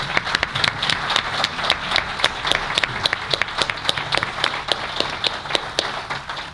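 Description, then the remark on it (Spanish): An audience applauds the local town council steadily, a dense wash of many hands clapping with a few sharper, louder claps standing out in an irregular rhythm, no voices over it. “A los que además hay que, hay que dar... un aplauso para ellos.”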